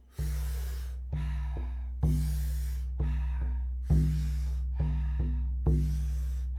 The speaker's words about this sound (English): We're going to take about 40 powerful breaths into the body, and then the exhale is a nice, soft, relaxing exhale. Good. Big, deep inhale. Soft, relaxing exhale. We do it rhythmically together. It sounds like this.